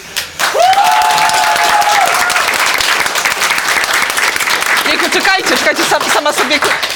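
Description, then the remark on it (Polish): Sustained audience applause for the guest Anna Gacek fills the whole clip, a dense rattle of many hands clapping at steady loudness, with a voice briefly calling out over it and a whistle-like tone near the start. “Wielkie brawa.”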